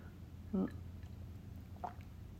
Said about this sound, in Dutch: Even een slokje thee tussendoor.